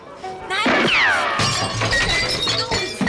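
Loud radio-drama gunshots, iconic stock shot effects reused in radio plays: a sharp crack followed by a descending ricochet whine, then more bright, clattering shots in quick succession with ringing tails.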